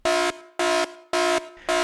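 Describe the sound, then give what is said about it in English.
An air horn used as a dad joke alarm blares in four loud, sustained blasts of steady, harmonic-rich tone, each about a quarter second long and evenly spaced, with brief gaps between them and no talking. “Ah, yes, there's that dad joke alarm.”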